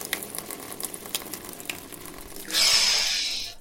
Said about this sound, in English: Oh my god, French cognac running all over the place. I had about, I don't know, 50 barrels of French cognac.